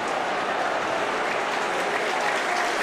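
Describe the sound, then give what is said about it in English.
A large stadium crowd at a Wrexham versus Bradford football match applauds Young after his missed penalty, a dense, even wash of clapping that holds at a constant loud level throughout, with no talking heard. “Young gets a good round of applause, as he should.”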